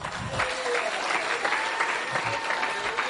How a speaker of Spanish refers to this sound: Dele un aplauso al Señor.